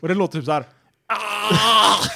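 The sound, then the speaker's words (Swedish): A person speaks briefly, pauses, then a voice imitates a loud, drawn-out, raspy groan lasting about a second, imitating the reconstructed voice of a mummy. “Och så ska de visa maskinen i slutet”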